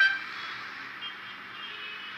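A steady, dense roar of city traffic fills the scene, with a faint horn-like tone blending into the constant hiss; no voices, no clear breaks, just an unbroken wash of street noise.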